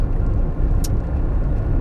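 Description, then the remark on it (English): Steady low rumble of a car cruising north on the 71 freeway in traffic, heading to Irwindale, the road and engine noise constant throughout, with a single faint high tick partway through and no voices. “Uh, just hit traffic. I am going north on the 70, 71 freeway.”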